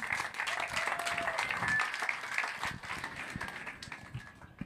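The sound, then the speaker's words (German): A crowd applauds the mayor steadily for a few seconds, dense overlapping claps at a fairly constant level, with a faint murmur of voices beneath and a few whistles. “So, ähm, nochmal ganz kurzer Applaus an unsere Bürgermeisterin.”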